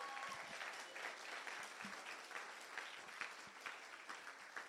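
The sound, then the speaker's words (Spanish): A crowd claps steadily and loudly for Jesus Christ throughout, a dense sustained wash of many hands with occasional sharper individual claps standing out. “Dale un aplauso fuerte a Jesucristo, vamos.”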